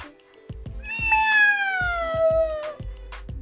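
A single long, drawn-out cat meow that slowly falls in pitch, heard clearly, with soft low thumps pulsing in the background.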